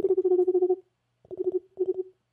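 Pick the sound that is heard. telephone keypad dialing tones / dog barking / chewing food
telephone keypad dialing tones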